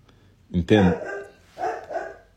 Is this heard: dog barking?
yes